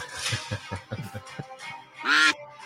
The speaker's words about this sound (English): Do you hear the music? I hear the music. Hopefully, everyone can hear the quacks.